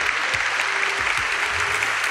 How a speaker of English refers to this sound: Let me give her applause one more time. Please.